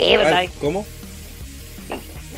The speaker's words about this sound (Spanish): No sé si suena más tu silla o tu cama